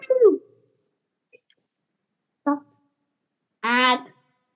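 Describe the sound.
A person performing an animal-sounds act on a stage imitates animal calls: a quick falling chirp-like yelp, a short bark-like burst, then a louder drawn-out howling cry, each separated by silence.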